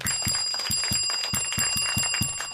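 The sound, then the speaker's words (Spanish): A small bell sound effect rings rapidly over and over, a quick steady run of bright metallic strikes that stays fairly loud for the whole stretch, with no voices. “Oye, campanita dos veces.”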